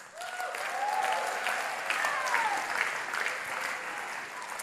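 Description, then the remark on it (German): An audience applauds steadily for the reading of 2 Samuel 6, verse 6, a dense wash of clapping that holds at an even level for several seconds, with a few faint whistle-like tones or cheers rising above it. “Applaus für 2 Samuel 6, Vers 6.”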